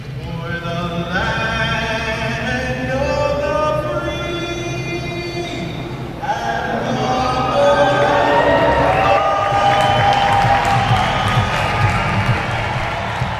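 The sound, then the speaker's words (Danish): A basketball arena crowd at the Paycom Center, at an Oklahoma City Thunder game, cheers after a shot, a dense, continuous roar with rising whoops and shouts that swells noticeably louder partway through and stays loud to the end. “Så sidder jeg her inde i Paycom Center oppe i min presseloge og har udblik, meget pænt udblik over hele banen.”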